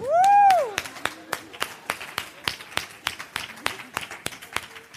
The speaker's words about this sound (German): Dafür kriegt man Applaus.